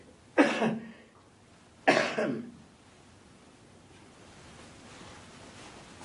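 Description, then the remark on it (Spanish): Two short, harsh coughs about a second and a half apart, fairly loud, from a shirtless, emaciated man being examined with a stethoscope in a room, followed by quiet background hiss with no talking. “Luca ausculta a …. Tose un poco.”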